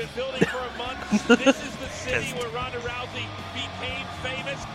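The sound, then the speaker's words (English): A few slow, sharp hand claps from one person at the start, spaced unevenly, with voices murmuring underneath and continuing after the clapping stops. Stephanie is clapping for herself at the contract signing of Ronda Rousey in Las Vegas. “Stop clapping!”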